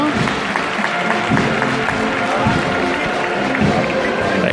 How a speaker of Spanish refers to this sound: Ahí pues va, ahora va avanzando con más fuerza, con más poderío, el paso de palio de la Virgen de Gracia y Esperanza, que se pierde por el interior de Sierpe Mira, mira, mira. Anda, pues el aplauso.